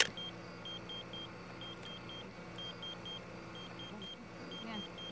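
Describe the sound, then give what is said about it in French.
A pager beeps in quick bursts of three short, high-pitched tones, repeating steadily with brief pauses, heard over a low, continuous engine-like rumble, in the desert where a police team is examining torn clothing at a crime scene. “Alors que l'équipe examinait les vêtements déchirés à la recherche d'un indice, un son strident se fit entendre le silence du désert venait d'être brisé par la sonnerie d'un téléavertisseur.”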